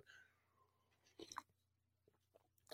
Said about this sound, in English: another sip of coffee real quick